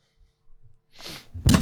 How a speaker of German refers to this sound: Oh, ich bin. Oh. Okay, mein Mikrofon ist umgefallen. Ich halte jetzt mein Mikrofon für die Rest der restliche Stunde.